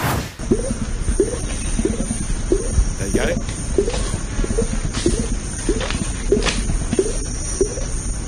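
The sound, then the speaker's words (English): An orangutan makes beatbox-like vocal sounds, a steady run of about a dozen short, punchy pulses with low rising squeaks, over constant background hiss; a person briefly speaks. “Orangutan's beatboxing like you've ne- you've never heard it before.”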